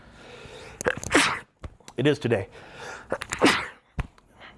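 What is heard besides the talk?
sneezing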